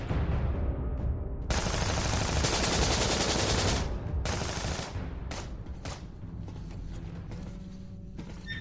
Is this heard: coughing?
no